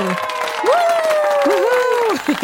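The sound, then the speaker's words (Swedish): An audience claps steadily and densely for a couple of seconds, with sustained voices whooping and cheering over the applause. “Applåder!”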